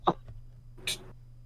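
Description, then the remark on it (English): A small, soft sneeze: a short catch of breath followed by a quick, hissy burst, muffled and fairly quiet, heard alone with no talking. “Bless you.”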